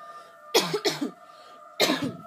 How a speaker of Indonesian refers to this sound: Aduh, batuk.